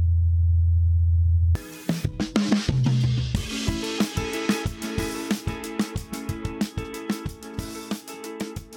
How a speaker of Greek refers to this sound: καθώς οι μηχανικοί, όπως ακούνε ένα αυτοκίνητο, έτσι και εδώ πέρα μπορούν να ακούσουν πως το μηχάνημά τους αποδίδει σε έναν άλλο πλανήτη το Perseverance θα προσπαθήσει να πιάσει περισσότερο ήχο του ελικοπτέρου σε μελλοντικές πτήσεις.